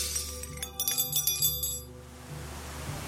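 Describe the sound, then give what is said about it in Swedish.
Cutlery, ashtrays, glass and porcelain crash and shatter on the floor of the ferry Estonia amid total chaos, in a quick cluster of bright, ringing impacts, followed by fading tinkles and a low rumbling background. “Bestick, askkoppar, glas och porslin krossas mot golvet.”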